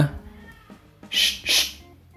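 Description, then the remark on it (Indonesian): A pet cat meows twice in quick succession during a recording, two short, bright calls following a quieter stretch with faint low background sound. “itu emang suara kucing gue ya jadi jangan jangan sampai ada yang bilang eh di mana sini ada yang dengar suara kucing gak emang itu suara kucing gue gue juga denger pas record”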